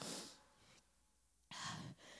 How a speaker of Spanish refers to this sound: Haga así conmigo, respire. Inhala.